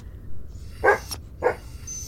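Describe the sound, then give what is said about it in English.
Two short, sharp barks or yips about half a second apart from anxious dogs, over a steady low background rumble, with no one talking. “I know the dogs were anxious.”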